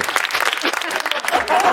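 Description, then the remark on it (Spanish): An audience claps steadily for a couple of seconds, a dense, crackling patter of many hands at a fairly loud, even level with no pause. “Vamos a empezar a aplaudir los chistes buenos y no las mierdas, por favor.”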